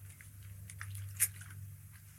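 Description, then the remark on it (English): Someone takes a quiet swig of water: faint wet mouth clicks and a soft gulp midway over a low steady hum, with no talking. “I need a little bit of water here, so I'm going to swig a boil water and we're going to get on with it.”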